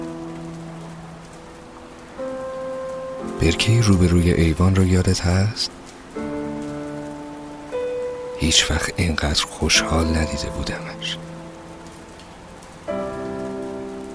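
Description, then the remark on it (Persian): Heavy rain pours down in two loud bursts of dense pattering, separated by calmer stretches where a person speaks over soft, sustained musical tones. “امروز تا دلت بخواهد باران بارید از آن باران هایی که میدانم و میدانی”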